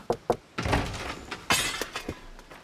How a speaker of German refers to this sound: Yokui springt auf, als er das Klopfen an der Tür hört. Als sich die Tür öffnet, lässt er sein Gerät auf den Betonboden des Büros fallen.